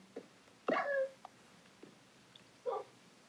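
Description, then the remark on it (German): A dog whimpers twice after being hit: first a longer, whiny yelp that trails off, then after a pause a shorter, higher whimper. Both are clear over a quiet background, with no talking. “So zweimal habe ich den Hund jetzt geschlagen.”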